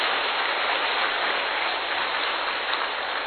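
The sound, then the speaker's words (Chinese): At a Buddhist fellows' meeting, an audience applauds warmly in thanks to station head Lu Junhong: many hands clapping in a dense, steady wash of crackling noise that holds at an even loudness for about three seconds, with no voices over it. “让我们再次以热烈的掌声，感恩卢军红台长的慈悲开示”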